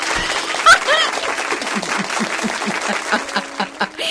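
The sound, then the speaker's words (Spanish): An applause sound effect replayed on a radio show: a crowd claps steadily and densely for about four seconds, a bright crackling wash of many hands at an even, fairly loud level with no clear pauses. “No, no, volveme a poner los aplausos, gente,”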